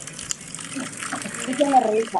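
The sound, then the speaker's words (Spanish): Cider pours from a bottle through a piece of cork fitted to the bottle as a spout, in a steady splashing stream that swells slightly toward the end, with a faint voice murmuring underneath in the last second. “o sea, no solo eso, sino que le ponen como, o sea, le dejan como un pedazo de corcho a la botella.”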